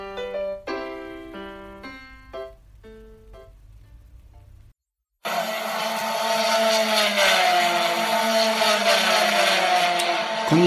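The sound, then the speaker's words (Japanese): After a brief musical jingle and a short pause, loud racing car engines roar continuously at the Sportsland SUGO circuit in Miyagi Prefecture, Japan, where GT races of production-based cars such as Lexus and Honda NSX and formula races are held, their pitch rising and falling as they pass, with no voices. “いい音でしょ今回はあの夏休みの自由研究として宮城県にありますスポーツランドスゴーにやってきました。”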